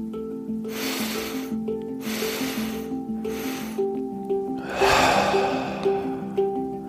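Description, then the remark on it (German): Three short, airy inhalations in a row, followed by one longer, fuller breath out, clear over a soft, steady musical drone. “Atmen genauso weiter, aber atmen noch diese drei Schritte ein.”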